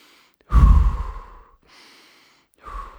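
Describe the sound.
A person demonstrates slow, deep breathing, imitating how the man who helps them with their breathing breathes: a long, heavy exhale, then a softer drawn-in breath, and the start of another exhale. No one speaks.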